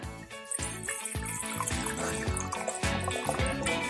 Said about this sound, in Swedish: Men, eh, men vänta, vänta, får jag bara hälla upp lite här får vi höra ljudet.